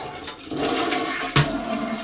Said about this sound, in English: What the hell? Let me flush this. It's like a stink bug or something.